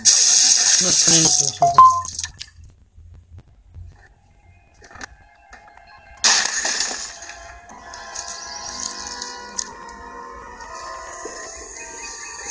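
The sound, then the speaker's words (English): A bird crashes through a window: a loud burst of shattering glass, followed by a quieter stretch and then a second harsh crash that trails off into scattered tinkling and rattling debris. “What's happening now, Bird through through the window.”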